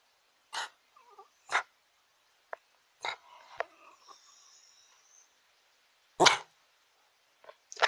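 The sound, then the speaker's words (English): A dog barks in short, sharp bursts, about four or five loud barks spaced irregularly with pauses between them, plus some quieter whines and yips, and no one talking. “If, if you didn't hear, he just gave you the, the history of dogs and cats.”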